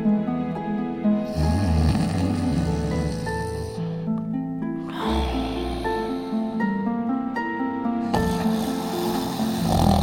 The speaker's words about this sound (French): Puis, il s'endormit en ronflant bruyamment.